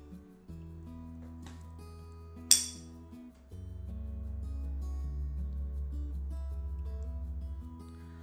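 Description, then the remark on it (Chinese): Tuning forks, two struck together, ring with steady, pure humming tones; a sharp metallic strike midway is followed by a louder low hum that throbs gently as it sustains, with no talking. “我在作用的这个声音呢，其实就是音叉。”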